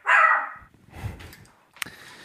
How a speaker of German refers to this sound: Hund hier die ganze Zeit abgeht wie eine Luzi. Entschuldigung.